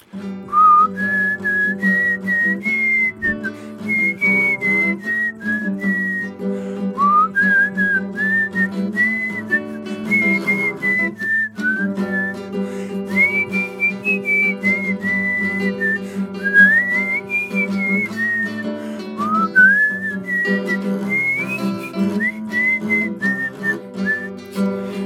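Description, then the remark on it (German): Someone whistles a lilting folk melody as a lead-in before the song is sung, phrase after phrase with brief pauses for breath, carried over a steady low drone that runs throughout. “Pfeifst du erstmal vor, oder?”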